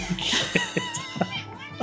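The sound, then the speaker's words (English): A ship's cat meows in a few short, wavering cries, moderately loud, with sharp little knocks and clicks scattered between them and no clear talking. “That's our ship cat.”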